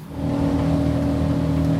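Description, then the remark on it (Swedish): A motorboat engine drones steadily at speed, loud, with a constant low hum and rushing noise that holds evenly throughout, no voices present; the boat is being driven across Stockholm's southern archipelago from Kagghamra toward central Stockholm, Sweden. “Men det är också en obeskrivlig njutning att köra båt.”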